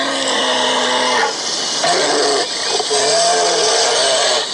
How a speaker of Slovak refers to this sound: A čo ešte také naše je určite medveď hnedý, ktorý znie vlastne takto.